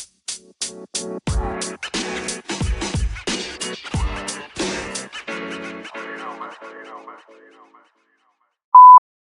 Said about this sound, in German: Ich weiß, heute sind sehr viele Pieps in der Folge.